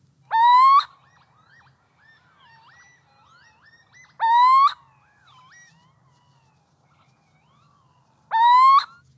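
Three loud, rising, mewing calls of a little owl ring out at even intervals, each about half a second long, with faint chattering bird sounds and a low hum between them.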